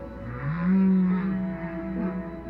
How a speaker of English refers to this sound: Hearing them underwater in person is quite an experience. Baleen whales, the large whales, are a little different they do have songs where the males will just broadcast the same thing.